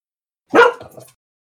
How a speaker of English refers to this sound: Yes. Dog. oh, there's the the sheep herder. Well, yeah, we got to have dogs out there to sheep to, to shed those sheep to, to herd those sheep.